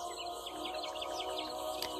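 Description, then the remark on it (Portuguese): Birds sing in a steady chorus of quick, repeated chirps and tweets over a soft, continuous background hum with no voices. “os pássaros cantando, os sons da água das folhas caindo, galhos se quebrando.”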